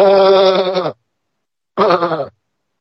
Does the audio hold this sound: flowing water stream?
no